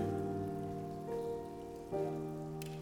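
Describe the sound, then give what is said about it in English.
Many foil wrappers are peeled off communion cups at once during the Lord's Supper, crinkling in a soft scattered crackle like light rain, spread across a room under sustained organ-like chords that shift twice. “Would you very carefully take off that foil wrapper? That's a sound we now associate with the Lord's Supper.”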